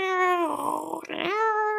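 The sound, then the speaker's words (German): A voice imitates a 56K dial-up modem connecting, as it once did just to read an e-mail: a steady, buzzy nasal tone, then a scratchy, hissing warble in the middle, and the sustained tone returning at the end, with no spoken words. “Also nehmen wir zum Beispiel mal, weiß ich nicht, äh, was fällt mir ein, das 56K-Modem, ja? ähm, Millennials kennen das noch, so dieses äh,”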